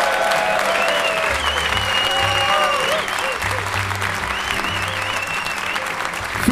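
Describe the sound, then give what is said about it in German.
A large live audience applauds steadily, with cheers and whoops rising over the dense clapping throughout. The sound is loud and continuous: a packed crowd in a train station venue welcoming the hosts. “Also herzlichen Dank Bitte für dieses großartige Willkommen.”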